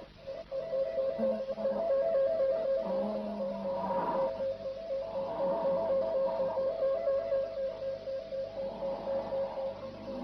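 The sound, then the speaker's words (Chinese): Heavy breathing and low moaning come through a crackly, intercepted radio signal, rising in a few slow, noisy surges over a steady warbling tone, with no speech. “一共有二十秒，前十秒是那个沉重的呼吸声和呻吟声，后十秒是心跳声。”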